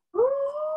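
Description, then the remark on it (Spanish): A pet dog howls in one sustained, rising tone that starts abruptly and holds steady, clear, with no talking over it. “Ya, es que mi perro huyó, fue mi perro, perdón.”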